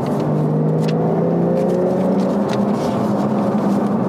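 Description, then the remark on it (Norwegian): A steady, loud low rumble of a car interior fills the whole stretch, with a droning engine tone and faint intermittent knocks and rattles as the tires roll over a bad, uneven road. “Det er, eh, det er veien som er dårlig.”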